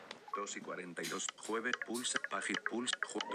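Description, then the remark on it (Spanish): Rapid, clipped screen reader speech from two smartphones, a Samsung J7 and an iPhone, interspersed with small ticking feedback clicks, playing steadily for a few seconds with brief gaps between bursts. “¿Ven que el tema de sonido del lector es diferente?”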